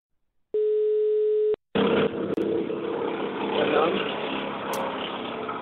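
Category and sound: signal or alarm, telephone ringback tone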